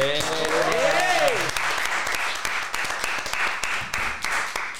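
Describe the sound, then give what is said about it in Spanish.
A crowd breaks into sustained applause at the end of an interview, a dense, steady patter of many hands clapping, with a brief rising voice or cheer audible at the very start before the clapping takes over. “Espero eh, un aplauso para terminar esta pedazo de entrevista que hemos hecho lo de Nude con …, la verdad.”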